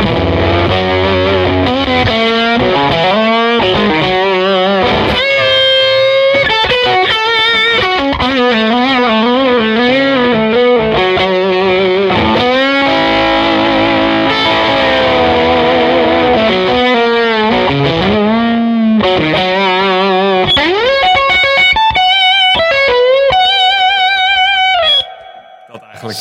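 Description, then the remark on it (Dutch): A loud electric guitar runs through a Scott McKeon fuzz pedal, playing bending, sliding notes and sustained lines that turn into high-pitched squeals toward the end, then cut off abruptly. “Dan heb ik ook nog een Scott McKeon fuzz. Ja. En die gebruik ik echt eh, voor hele vieze dingen.”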